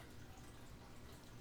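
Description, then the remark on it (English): Faint, steady bubbling of water in a filled thirty-gallon aquarium with no fish and a pirate ship decoration: a soft continuous gurgle with light dripping texture, low in level and heard alone without any voices. “Look, if you listen closely, if you listen closely to the podcast, you can hear it bubbling in the background.”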